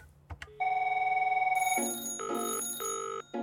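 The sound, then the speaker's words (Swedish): A telephone rings loudly and up close, a steady tone giving way to a rapid alternating two-note warble in short bursts, with no one talking. “Jan Stenbeck ringer till sina direktörer morgon, middag, kväll.”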